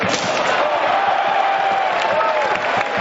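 A large ice hockey arena crowd roars continuously at a tight, back-and-forth evening game involving Malmö Redhawks. Many spectators are cheering and shouting at a steady, loud level, with occasional sharp thuds and bangs cutting through the din.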